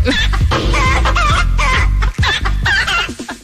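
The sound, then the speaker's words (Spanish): Loud rooster and chicken calls fill the whole stretch, a busy overlapping run of short squawking crows and clucks with no talking. “Empiezan a salir los gallos.”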